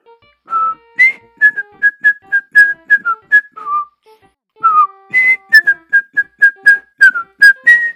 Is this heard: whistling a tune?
yes